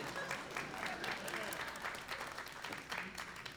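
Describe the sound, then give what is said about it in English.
An audience claps steadily for several seconds at the speaker's request so he can get another drink, a dense wash of many hands with a few scattered crowd voices mixed in, fairly loud and sustained throughout. “I need you to clap so I can get another drink.”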